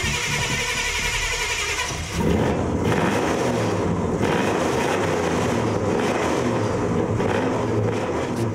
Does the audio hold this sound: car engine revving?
yes